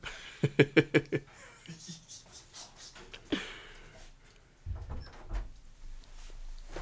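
A door is opened to let in a pet that had been scratching at it: a quick series of creaky squeaks, a sharp latch click a few seconds later, then low rumbling handling noise.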